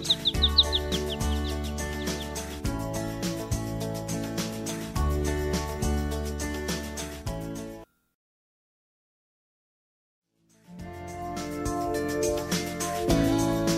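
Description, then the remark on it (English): Birds chirp and tweet in quick, high bursts as they fly and land in the tree branches of a woods, over a steady, tonal backdrop. The sound cuts to silence for a few seconds, then the chirping resumes. “Birds flew and landed in the tree branches.”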